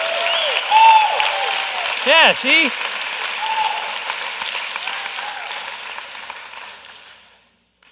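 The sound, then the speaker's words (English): A church audience claps together in a dense, steady burst of applause lasting several seconds before fading out, with a voice speaking briefly over it. “Okay, everybody just clap so you can get out of your system.”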